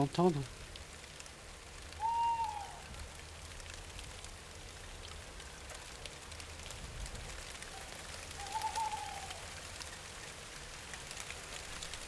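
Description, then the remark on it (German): A night bird that has just landed in the tree opposite calls twice, about six seconds apart, each a short mid-pitched wavering note, over a steady hiss of autumn rain falling on slightly dry vine leaves, recorded on a tape recorder. “Gerade ist ein Nachtvogel auf dem Baum gegenüber gelandet.”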